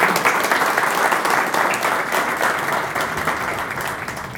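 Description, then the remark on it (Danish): Sustained audience applause for a male speaker, a dense steady patter of many hands clapping, fairly loud and fading slightly toward the end, with no talking over it. “Skal vi ikke også lige give herren en hånd?”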